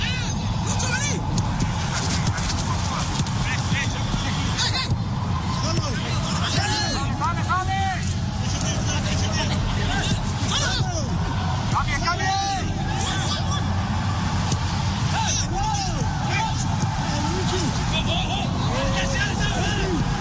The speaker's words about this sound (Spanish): el ambiente puro del estadio que viene por la señal internacional